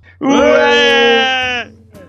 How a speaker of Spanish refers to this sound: Bien, o sea, yo estoy medio constipado, pero vosotros para gritar estáis fenomenal.